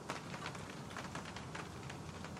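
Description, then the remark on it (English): Steady rain falling with a dense, continuous hiss and patter, even in loudness throughout, with no voices present. “thought the rain might help.”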